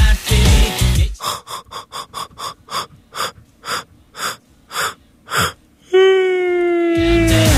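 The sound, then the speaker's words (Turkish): A run of about ten sharp, breathy gasps that gradually slow down, ending in a long, drawn-out vocal yawn that slides downward in pitch, fairly loud. “Esneme servisimiz açılmıştır tatlım.”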